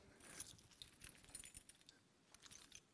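Car keys jangle and clink in a quick series of bright metallic rattles as they are handed over to be borrowed, with a short pause before a final burst of jingling.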